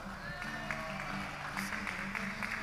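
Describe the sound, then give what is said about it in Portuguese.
An audience at a prayer group claps for a woman in a steady, dense patter of many hands for a few seconds, with a murmur of voices mixed underneath. “Palmas para nossa irmã.”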